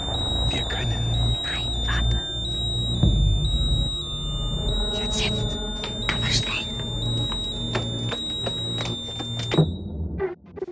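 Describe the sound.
A fire alarm rings nonstop with a loud, shrill, steadily pulsing tone, while voices and bustling commotion carry on underneath before it cuts out near the end.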